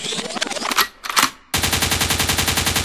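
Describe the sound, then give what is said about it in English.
Loud gunshot sound effects crack out, then settle into a fast, steady burst of automatic gunfire that rattles on without any voices. “a gunshot means forward.”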